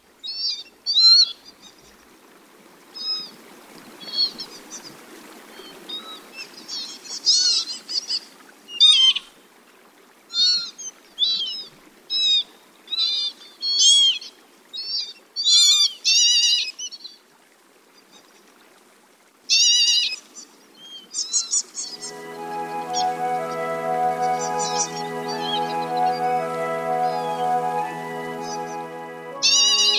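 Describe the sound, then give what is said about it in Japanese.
Northern lapwings at Arasaki reclaimed land in Izumi, Kagoshima Prefecture, Japan, give a long series of short, wheezy mewing calls, clear, repeated in irregular bursts as they take off and flutter in the air; near the end a steady musical tone swells in beneath them. “朝になっても寝床を離れず日向ぼっこ背中はキラキラ頭におしゃれな飾り羽ミューと鳴いて飛び立てばふわふわひらひら空を舞うたげり何から何までユニークな田んぼの貴婦人たちです”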